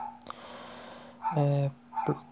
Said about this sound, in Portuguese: esse cachorro tá me desconcentrando, que desgraça, velho. Tem um cachorro latindo aqui, eu não sei se dá pra escutar no podcast, mas eu tô perdendo o fio da meada, porra.